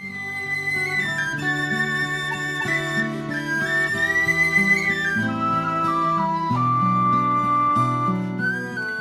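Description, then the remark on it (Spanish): A person whistles a flowing melody with warbling trills and sliding notes, carried steadily over a full instrumental accompaniment with no talking. “Silbidos y gorjeos que los labios experimentados en el arte de la música forman”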